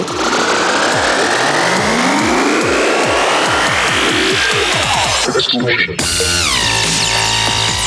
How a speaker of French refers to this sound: Donc là, c'est très dubstep aussi. Hein. Sont très métalliques.